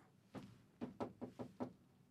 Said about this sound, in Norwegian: Var det bare meg som hørte at det banket på?